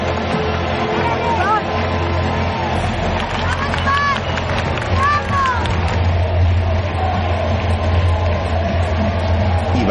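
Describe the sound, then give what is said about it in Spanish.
A large stadium crowd cheers as the children's national team comes out onto the field, in a steady, dense roar that fills the whole clip, with scattered shouts and a few rising whistles cutting through the din. “La selección infantil sale al campo aclamada por todo el público.”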